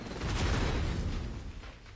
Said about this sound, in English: Um, I'm really proud of this section right here uh, because of the rhythm that we play with, the, the alternate uh, beats as we sort of go uh, where we're keen off of the gunfire, as it builds and builds and builds until that.